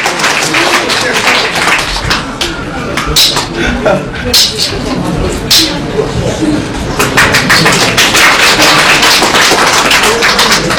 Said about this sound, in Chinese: 是这，咱以热烈掌声欢迎高三小老师给大家唱一段陕北说说。